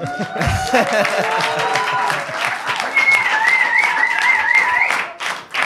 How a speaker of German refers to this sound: Ich habe jetzt kurz gewartet, ob irgendwie Applaus kommt oder irgend sowas, aber natürlich gar nichts, ne?